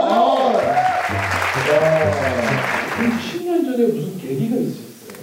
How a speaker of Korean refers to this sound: 박수 한번